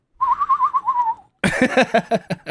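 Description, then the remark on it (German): A bird-whistle toy warbles, a trilling, wavering whistle for about a second, followed by a brief pause and a rapid burst of harsher, rattling warbles, all fairly loud. “So wie du dir so eine, so eine Vogelpfeife kaufst auf irgendeinem so Fest.”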